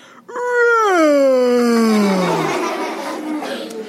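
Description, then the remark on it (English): A voice imitates the gunny wolf's long yawn in a told story: one drawn-out, loud vocal sweep that starts high and slowly slides down in pitch, then fades into a breathy trail. “And the gunny wolf yawned.”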